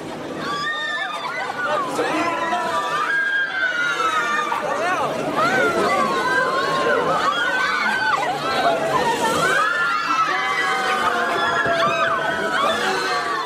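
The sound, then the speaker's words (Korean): A lively crowd at a North Korean amusement park with rides such as a Viking ship and a drop tower, children shouting and squealing over steady overlapping chatter, loud and unbroken throughout, with high-pitched voices rising and falling in excited bursts. “우리네 예, 놀이공원 가보면 뭐 바이킹이나 뭐 자이로 드롭이라고 그러나요?”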